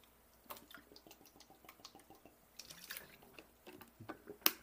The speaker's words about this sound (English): Excuse me, let me get some water.